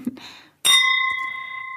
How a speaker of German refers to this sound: Und weißt du, ich stoße an auf sie, also wir stoßen beide an, logischerweise, du ist gerade nichts mehr in dein Glas, aber wir stoßen Schon wieder, an.